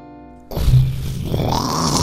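A short, heavily distorted jingle: a steady buzzing tone for half a second, then a loud, harsh, crackling blast of noisy sound that rumbles and grinds until the end.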